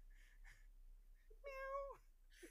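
One clear, drawn-out cat meow rises and holds for about half a second in the middle, with a few faint, soft noises before and after it and no talking.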